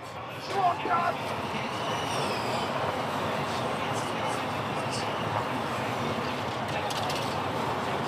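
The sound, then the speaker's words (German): Formula E electric race cars pass by during a race, with a rising high-pitched motor whine over a steady broad rushing roar, fairly loud and continuous, with faint voices mixed into the background. “Dafür, dass das Rennautos sind, die jetzt gerade hier vor uns langfahren.”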